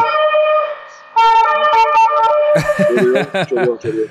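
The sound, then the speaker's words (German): A police siren wails in steady two-tone bursts, loud, before people start talking over its continuing sound. “Polizei. Ah, Polizei.”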